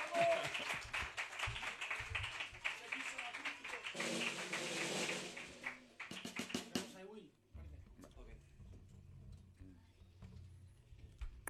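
A loud, dense burst of audience applause and clapping fills the first seven seconds, then drops away abruptly, leaving a quieter low hum with scattered taps.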